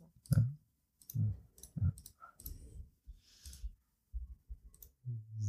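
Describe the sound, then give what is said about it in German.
A series of crisp computer mouse clicks in an irregular rhythm, some single and some in quick pairs, spread across several seconds with no one talking, as someone sets up a Zoom call on a computer. “Hört man jetzt hier vielleicht diese Klickgeräusche?”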